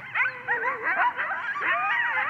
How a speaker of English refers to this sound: Aren't they creepy? Sometimes I hear them at night. This is a pack of coyotes howling at night. This is not this is not my house. I just found this on the internet, but very creepy stuff.